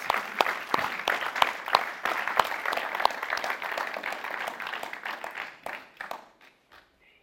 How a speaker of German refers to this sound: Geben wir einen herzlichen Applaus